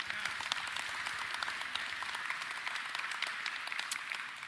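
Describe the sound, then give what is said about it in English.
An audience in a chapel breaks into steady applause for six babies dedicated that day, a dense wash of many hands clapping at an even level throughout, with no voices standing out above it. “And so we can give clap for that.”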